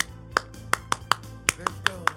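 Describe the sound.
Eight sharp hand claps in a syncopated cheering rhythm, grouped like a chant pattern, crisp, with a faint murmur of voices underneath; a 'Let's go' cheer from an old melody much used for cheering at student sports games.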